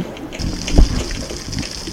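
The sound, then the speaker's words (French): Muffled, gurgling water as a recorder plunges underwater, a steady churning wash with one heavy low thump partway through. No voices are heard. “Attention, plongée sous-marine.”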